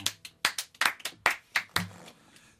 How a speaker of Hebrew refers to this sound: מתבקשת למחוא כפיים.